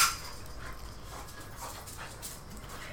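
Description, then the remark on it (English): A dog named Gunner pants in quick, breathy bursts, with soft scuffling and shuffling noises mixed in throughout. No one speaks. “Don't kick my dog. He's an attack dog.”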